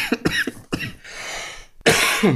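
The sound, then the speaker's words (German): A coughing fit: a quick cluster of harsh coughs, a long raspy breath, then a final loud, rough cough that trails into throat clearing. “Ich versuche es, wenn der Husten nachlässt.”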